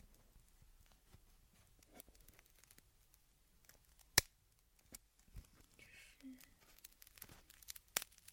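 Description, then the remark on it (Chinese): A tempered glass screen protector cracks in a few sharp, crisp snaps at irregular intervals, with faint crinkly crackling between them. The sound is quiet overall and there's no talking. “这是那个钢化膜断裂的声音。”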